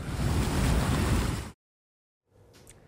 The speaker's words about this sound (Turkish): Yerel halkı dev dalgalara karşı uyardı. Okyanus kıyısından uzakta durmalarını istedi.